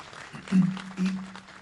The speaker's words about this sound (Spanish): así que yo, primer aplauso lo pido para ellos, por favor, porque han hecho un trabajo muy interesante